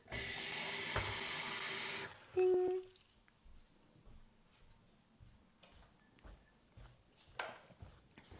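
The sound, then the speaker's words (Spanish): A kitchen tap gushes loudly for about two seconds as a glass fills, then stops with a brief ringing squeak, leaving a quiet room with faint knocks and shuffles. “voy a coger un vaso de agua.”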